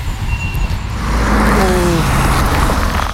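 A car makes a U-turn on a road, its engine rumble swelling through the middle as the motor's tone shifts, over a constant low roar of road noise, with no one speaking.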